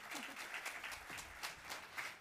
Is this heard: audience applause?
yes